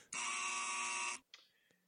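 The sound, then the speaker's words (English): A loud, harsh buzzer sound effect blares for just over a second, a steady rasping tone with dense harmonics, then cuts off abruptly, followed by a brief faint trailing sound. “All right, you won't be able to hear them, Rick, but I'm going to hit the sound effects here. My dinger, my buzzer.”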